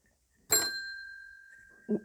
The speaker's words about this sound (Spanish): Tengo que terminar, suena el timbre, pero quiero que les quede esa frase.